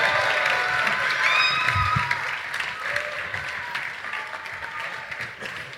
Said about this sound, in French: Donc je vais vous demander de raccompagner les projets, s'il vous plaît, avec un tonnerre d'applaudissements et beaucoup de bruit pour tous les projets, s'il vous plaît.